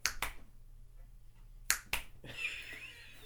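Two quick, crisp finger snaps, a pause, then two sharp hand claps, followed by some faint, muffled background noise.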